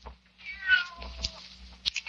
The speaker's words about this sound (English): Where do you come from, you stupid cat? Go away.